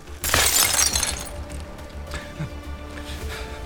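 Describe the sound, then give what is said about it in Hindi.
A stone thrown by a shopkeeper strikes a mirror: a sudden, loud crash of glass shattering, followed by bright tinkling shards scattering and settling for a few seconds over a low background hum. “तभी किसी ने एक पत्थर शीशे पर मारा और शीशे के टुकड़े टुकड़े हो गए”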